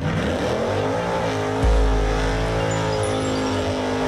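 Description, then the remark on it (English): A loud race car engine revs steadily for several seconds, its pitch climbing and holding, with a sudden deep surge of power partway through and no voices. “Start your engines. It's time to talk about all things racing NASCAR, IndyCar, sports cars, and Formula One.”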